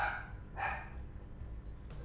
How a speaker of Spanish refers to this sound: Pero pinches perros cabrones, que la chingada.